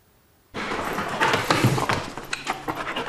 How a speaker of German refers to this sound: Mit vollem Einsatz erkundet Spürhund Tess den Raum.